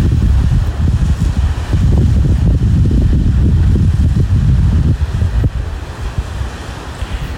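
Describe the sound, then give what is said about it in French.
Ocean waves break on the shore outdoors in a steady, loud roar that swells and recedes in surges, with gusty wind buffeting the microphone throughout and no one speaking, on a hot day. “Je ne sais pas si vous entendez les vagues, mais en tout cas, il fait assez chaud. Écoutez les vagues.”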